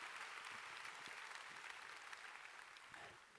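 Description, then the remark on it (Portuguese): A large group claps steadily and continuously for the Lord Jesus during a morning religious service, a dense, even wash of applause at a strong, sustained level without pause. “Quem pode dar mais um aplauso ao Senhor Jesus dessa manhã? Pode aplaudir mais forte.”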